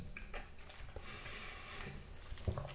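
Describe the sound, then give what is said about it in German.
Quiet crunching and munching from a foley sound effect of a horse chewing a crisp cookie, with irregular crackly bites and soft grinding over about three seconds. No voices. “Weil es klingt ja wirklich so, als würde das Pferd einen Keks essen.”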